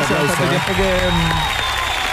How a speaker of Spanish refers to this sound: Fuerte el aplauso.